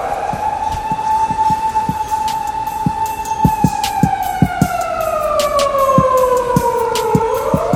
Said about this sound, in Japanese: パトカー走ってます